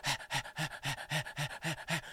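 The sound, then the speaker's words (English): A person's voice mimics a dog's panting, about nine quick, rhythmic breathy huffs in steady succession, clear with no other talk. “And little kids, parents were bringing their little kids up to these dog humans to pet them and the dog humans in their sexual leather gear would sit up on their knees and go,”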